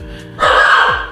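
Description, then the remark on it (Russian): A dog lets out a short, loud bark, a harsh burst lasting under a second after a brief quiet moment, with no one talking over it. “О, это моя собака, видишь, на тему феминизма среагировала.”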